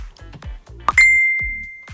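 A short, bright Facebook Messenger notification chime: a quick blip followed by a clear ringing tone that lingers and slowly fades, over some low background sound.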